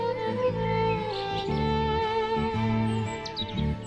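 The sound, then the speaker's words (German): Birds chirp and tweet in short, scattered calls outside in a garden on a hot day, heard through an open balcony door, over a steady, droning tonal background, the chirps bright and light. “Draußen in unserem Garten zwitschern die Vögel.”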